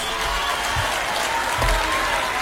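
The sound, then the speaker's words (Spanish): Dense, sustained audience applause at a Complutense University graduation ceremony as the name of Ayuso is said, a steady wash of many hands clapping with no pauses, loud and even throughout. “La estudiante con mejor expediente ha cargado contra la presidenta muy triste porque cuando digo Ayuso, oigo aplausos.”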